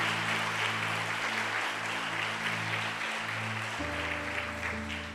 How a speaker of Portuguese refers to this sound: aplaudir ao Senhor pela vida